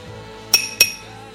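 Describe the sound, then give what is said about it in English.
Two bright glass clinks ring out in quick succession, fairly loud, as glasses are touched together in a toast of cheers, each leaving a brief high-pitched ring over a quiet background. “You're going to shatter that glass.”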